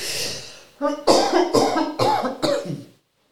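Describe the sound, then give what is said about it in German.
A person coughs loudly in a fit: a sharp intake of breath, then about five rough coughs in quick succession, each one hoarse and throaty, fading out at the end. “Jetzt muss ich husten.”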